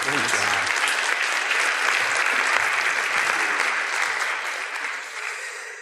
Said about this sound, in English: Give him a round of applause, folks.